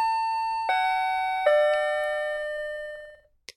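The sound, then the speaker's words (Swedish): An elevator arrival chime as the elevator reaches the fifth floor: three clear bell-like tones stepping down in pitch, each ringing and slowly fading, followed by a short click at the end. No one speaks. “Det vet vi ju vad det där ljudet betyder, eller hur? Mm, vi är framme på våning fem.”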